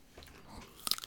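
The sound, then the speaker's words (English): Close-up biting into a Slim Jim dried beef stick, a few sharp crunchy snaps near the end after quieter mouth sounds, recorded very near the mic. “It's got a lot of juice once you start chewing it. It's like jerky.”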